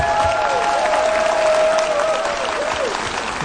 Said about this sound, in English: Give them a big round of applause, friends.